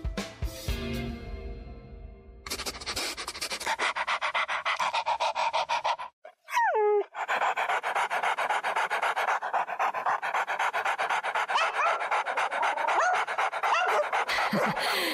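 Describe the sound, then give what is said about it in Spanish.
A dog pants and sniffs in quick, steady rhythmic bursts of breathy noise, loud and continuous, broken midway by a short high-pitched whine before the panting resumes. “Estamos olisqueando”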